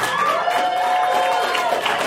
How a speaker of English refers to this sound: How many people do listen to the show? My round of applause